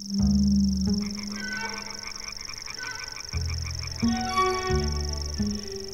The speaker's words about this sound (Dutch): De sprinkaritzanger heeft nog een liedje. En dan de zee op de achtergrond. Hè. Voor de rest valt alles stil.